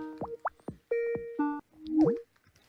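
A Skype call connecting tone: a bright sequence of bubbly electronic plops and short rising and falling synth notes, clear, playing alone for about two seconds before fading.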